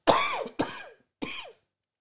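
Three harsh, throaty coughs: two in quick succession, then a short pause before a third. No talking, and silence after the last one.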